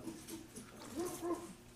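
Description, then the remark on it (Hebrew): A person softly imitates a dog's bark with two quick, voiced syllables, 'hav-hav' as the bark is rendered in Hebrew, close together and fairly quiet over a faint background. “מה, איך הכלב נובח? הב-הב.”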